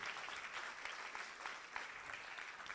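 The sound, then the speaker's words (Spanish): An audience claps steadily in an applause of faith and thanks to God, a dense wash of many hands striking at once with no clear rhythm, sustained and fairly loud throughout with no voices standing out. “Alguien le da un aplauso de fe a Dios, de agradecimiento.”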